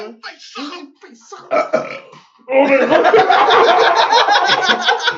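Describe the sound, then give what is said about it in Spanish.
A long, loud, gravelly burp rumbles on for nearly three seconds, following a few moments of brief vocal sounds and shuffling. “No, es que me iba a hacerlo natural, pero casi me sale con vómito.”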